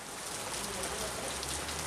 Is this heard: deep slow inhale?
no